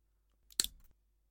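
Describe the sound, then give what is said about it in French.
A single sharp metallic snap with a brief ringing edge as bolt cutters bite through a padlock shackle on a metal box, followed by a short rattling clatter, then quiet. No voices. “Ah putain, il est fermé avec un cadenas. T'as pris la pince coupante Ouais, attends deux secondes.”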